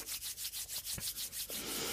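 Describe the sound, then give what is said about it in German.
Palms pressed together and rubbed briskly to warm them, a soft, airy swishing friction in a steady back-and-forth rhythm of about ten strokes, with no talking over it. “du nimmst deine beiden Handflächen, legst sie aneinander und reibst sie warm. Das macht so ein reibendes Geräusch.”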